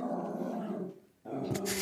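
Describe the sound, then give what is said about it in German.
Two old dogs growl and snarl at each other in a tense scuffle, a low rumbling snarl that breaks off briefly, then flares up again, fairly loud. “Social Distancing, die Hunde drehen irgendwann auch durch. Die beiden Opis werden langsam alt und miss missmutig und streiten sich dauernd.”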